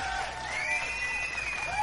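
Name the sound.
applause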